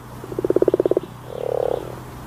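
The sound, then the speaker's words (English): A common frog croaks in a quick pulsing burst of about a dozen clicks, followed by a softer, lower purring croak, with a faint steady hum beneath. “That's the unmistakable sound of the common frog.”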